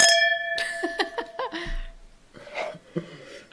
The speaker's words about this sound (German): Mit wem stößt du eigentlich an? Mit mir. Hast du zwei Gläser und dann ja. klackerst du die anderen an.